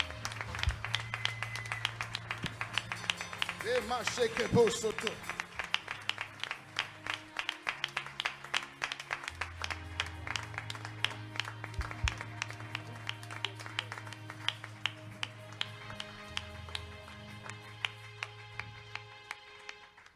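A church audience applauds steadily for about twenty seconds to welcome a pastor, dense overlapping claps with a few cheers, while sustained keyboard bass notes and chords play underneath.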